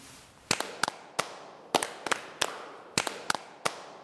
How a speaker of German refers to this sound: Besondere Anlässe erfordern besondere Rituale, zum Beispiel das sogenannte Ehrenritual. Die Brüder klatschen dazu in einem bestimmten Rhythmus.